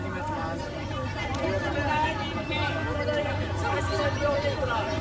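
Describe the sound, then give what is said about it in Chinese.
Crowd ambience at the annual school festival (Waseda Festival) of Waseda University in Tokyo, Japan, recorded in 2019: a steady, dense wash of overlapping voices and chatter from many people, with no single voice standing out, holding at an even loudness throughout. “大家现在听到的是在东京早稻田大学早稲田大学这个地方呢，现在正在举办的是一年一度的学园祭。”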